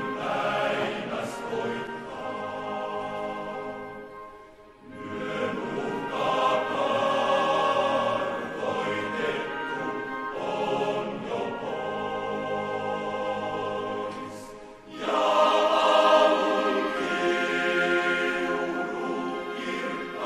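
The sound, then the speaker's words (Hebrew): A choir sings the Finlandia Hymn in Finnish, in a Finnish recording by Segerstam with Helsinki, with full orchestral accompaniment. Broad sustained phrases rise and fall, separated by brief breaths around every five seconds, loud throughout. “אז פינלנדיה הימני, בהקלטה הזאת של סגרסטאם, זאת הקלטה פינית, סגרסטאם עם הלסינקי, אז גם שרים את אותו המנון שאנחנו רגילים לשמוע אותו, לא מושר.”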